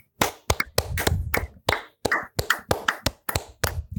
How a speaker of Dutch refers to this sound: En dan wil ik je even vragen om een luid applaus te geven. Oh, kut, ik heb micro vast. Ja voor Prins Bernhard.